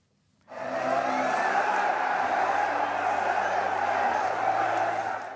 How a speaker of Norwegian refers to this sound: publikum i ekstase etter en bragd på Alfheim i går. TIL klarte nemlig det få hadde trodd på forhånd, nemlig å slå det tyrkiske storlaget Besjiktas 2-1 på hjemmebane i den første av to kvalifiseringskamper til Europa League.